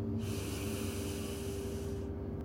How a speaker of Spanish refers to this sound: Respira profundo y siente el aire entrando por tu cuerpo y luego exhala. Inhala. Exhala. Céntrate en tus respiraciones Siente cómo tu pecho se infla con cada respiración. Inhala.